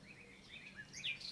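Several quick bird chirps overlap, high and bright, repeating in a loose rhythm over a soft background hum with no one speaking.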